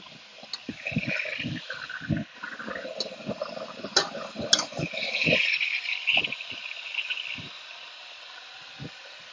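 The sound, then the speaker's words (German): Water runs and splashes as an electric kettle is filled with water for vegetable broth and set down, with scattered clicks and knocks of handling before a faint rising hiss, fairly quiet. “Ich stelle meinen Wasserkocher.”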